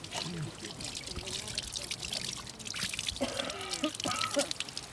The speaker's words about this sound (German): Männer und Frauen waschen sich an einem Brunnen sorgfältig Gesicht, Hände und Unterarme. Ein muslimischer Brauch, der Abdest, die Gebetswaschung.